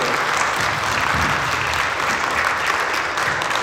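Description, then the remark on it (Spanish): A crowd at a Catholic gathering claps steadily and loudly for the Lord throughout, the dense applause of many hands without pause, with faint voices mixed beneath. “Gloria a Dios, dale fuerte al Señor, hermano”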